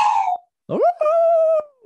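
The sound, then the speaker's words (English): A dog howls in two drawn-out, rising and sustained tones separated by a short pause, the second howl long and steady before trailing off. “Is that a bark or like a howl? It's a howl.”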